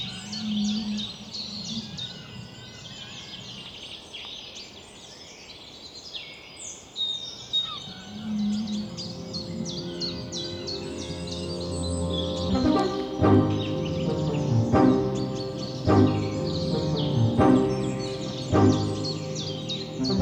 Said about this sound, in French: Et alors, les oiseaux et les baleines ont enfin eu de la place pour chanter.